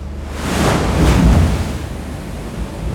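A huge ocean wave surges in and crashes heavily against one side of the boat Ægir, a loud roaring wash that builds, peaks and fades into churning water and wind noise. No one speaks.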